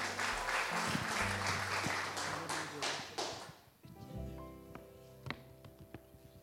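An audience at a worship service applauds loudly to the Lord for the pastor who is about to preach, with dense, steady clapping for about four seconds, then the clapping fades out as sustained musical tones ring on with a few scattered claps.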